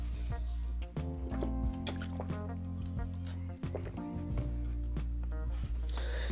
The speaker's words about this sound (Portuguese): Tomar um gole d'água.